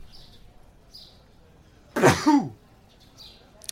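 a man sneezing

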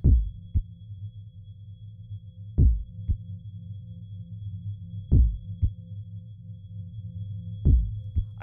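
heartbeat sound effect

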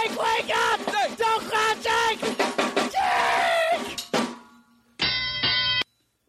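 bell sound effect

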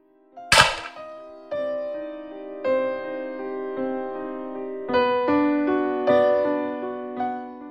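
gunshot

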